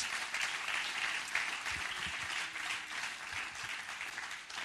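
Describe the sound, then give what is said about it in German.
A crowd applauds steadily, a dense, even wash of many hands clapping that holds at a fairly loud level without pause or voices, giving applause and thanks to the theatre team at a church service. “Und auch ganz besonders nochmal Applaus und Dankeschön an unser Theaterteam.”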